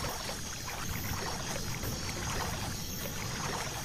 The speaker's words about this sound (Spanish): Ok, continuamos remando.